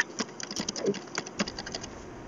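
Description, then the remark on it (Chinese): Rapid typing on a computer keyboard: a quick, uneven patter of light clicky keystrokes, some slightly louder taps mixed in, with no voices. “他现在键盘声，键盘打键盘声。”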